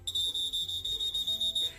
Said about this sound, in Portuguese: Todas as manhãs, Loya Abu Salul chama pelos passageiros com a ajuda de um apito